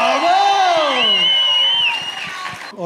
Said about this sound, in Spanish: Un aplauso aquí para nuestro ganador. ¡Vamos!